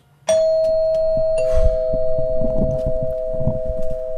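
A doorbell is rung by visitors standing at the front door of a home, with a sharp onset at about 0.3 seconds, then a steady electronic tone sustains to the end, with a second note joining around 1.5 seconds and low rumbling noise underneath.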